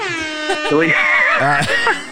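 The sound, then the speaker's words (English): A loud, blaring air horn sound effect played from a soundboard holds for about two seconds, a steady brassy tone with slight pitch wobble, while people talk underneath it. “you, you know, air horns okay. for that?”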